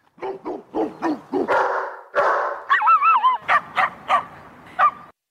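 A dog barks repeatedly in quick, loud bursts, with some longer howling, whining yelps mixed in. No one speaks.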